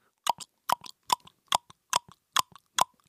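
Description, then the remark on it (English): A voice imitates woodblock percussion with crisp mouth clicks, a steady beat of seven hollow knocks, each followed by a softer secondary tick, with no talking. “I don't know if if anybody else feels the same way about about sweet little woodblock and cowbell beats.”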